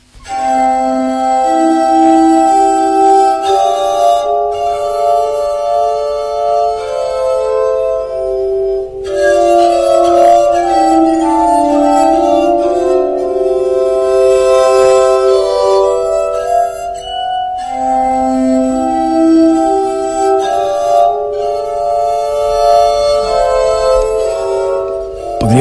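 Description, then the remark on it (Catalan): A glass harmonica plays a fragment of Mozart's Adagio KB 357, slow and gentle, its pure ringing tones sustaining and overlapping in a soft melody with a shimmering, bell-like resonance and no voices. “Com a mostra de com sona aquesta harmònica de vidre, podem escoltar, si voleu, un fragment de l'obra que va composar Mozart, Adagio KB 357.”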